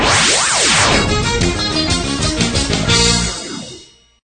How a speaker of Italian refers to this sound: mandiamo un brano musicale